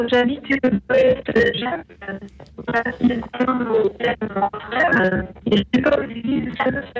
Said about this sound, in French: je suis désolé, mais on, vous entend mal. Alors essayez de rapprocher le, téléphone euh, et de vous placer dans un endroit où vous êtes un peu fixe et où vous avez l'habitude de capter